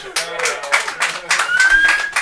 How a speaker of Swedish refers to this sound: Applåder!